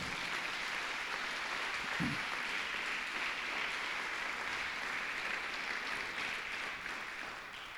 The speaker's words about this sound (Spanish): Más fuerte ese aplauso.